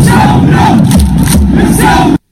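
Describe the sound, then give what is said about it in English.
A huge crowd of Russian soccer fans in a packed stadium chants in unison about the coronavirus, a loud, dense roar of many voices filling the space without pause before it cuts off abruptly. “it says after videos, after videos went viral at the weekend showing Russian soccer fans chanting about the coronavirus in packed stadiums”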